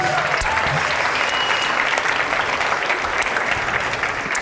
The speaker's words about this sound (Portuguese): Pode aplaudir Jesus, gente, pela vida dele.